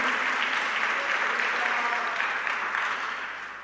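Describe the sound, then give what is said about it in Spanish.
An audience claps for Jesus with joy during a sermon, a dense, continuous burst of applause that holds steady throughout, with faint voices mixed underneath, easing off slightly at the very end. “Dale un aplauso a Jesús, hermano, con gozo, con alegría.”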